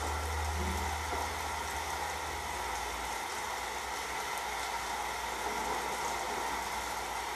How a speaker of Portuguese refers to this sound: E então essa chuva vai engrossando, engrossando e você ao longe olha e começa a ouvir o som da chuva, o barulho, os trovões.